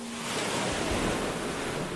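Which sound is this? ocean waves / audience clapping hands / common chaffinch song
ocean waves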